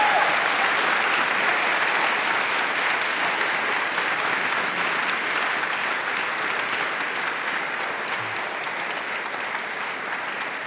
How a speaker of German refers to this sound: Und wir freuen uns riesig und ich glaube, das ist nochmal ein Moment, wo Sie sich als Publikum vielleicht einmal bemerkbar machen können und uns eine Runde Applaus hier vor allen Dingen an unseren Gast geben können.